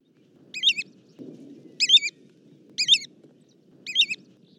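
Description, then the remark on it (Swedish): An American golden plover calls four times at steady intervals, each a high, clear, warbling whistle with quick up-and-down inflections, over a faint low rumble with no voices. “Och då kan vi ta och lyssna eh, och höra hur amerikansk tundrapipare kan låta om, om ni tycker att det kan vara lite likt.”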